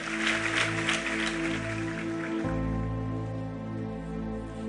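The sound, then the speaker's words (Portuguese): An audience claps steadily in praise to God over sustained keyboard chords, the applause fading out about halfway through while the held music and a deep bass note carry on alone. “Aplauda Ele bem forte.”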